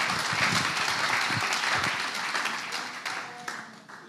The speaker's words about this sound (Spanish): Todo santo, dice el pastor, es feliz. Aplaudan al Señor. Aleluya.